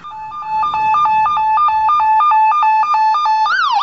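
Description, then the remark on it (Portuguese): An ambulance arrives, its loud siren blaring in a rapid two-tone hi-lo pattern, alternating steadily for several seconds before switching to a rising and falling wail at the end. No one speaks. “Chega a ambulância.”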